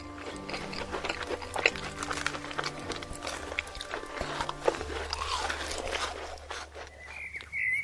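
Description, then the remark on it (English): A crisp bite into a ring-shaped, golden-brown fried urad-batter fritter, followed by a run of crunchy chewing, short brittle crackles repeating over a low steady hum, with a brief higher whine near the end. “It's lighter than it looks, and when you bite into it, the crunch is satisfying.”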